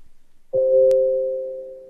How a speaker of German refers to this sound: was war das? Das ist bei mir, ich weiß nicht, wie ich das ausstelle. Ich bin zu doof, meinen eigenen Computer zu bedienen. Ach so, dein Computer klingelt also.